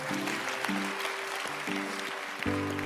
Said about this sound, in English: We're going to take a few moments. Yeah, let's just applaud and thank God for that tonight.